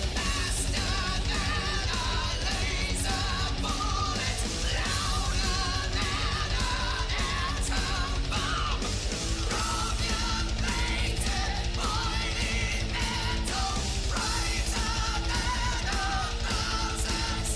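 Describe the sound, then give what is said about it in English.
A leather-clad heavy metal singer, performing in concert, lets out a sustained, high-pitched scream over loud, dense distorted guitars and pounding drums, the wailing vocal soaring steadily above the full band for several seconds. “And there he is, front and center, leather clad, delivering it in concert with that amazing, one of a kind scream that can curdle blood and milk at the same time.”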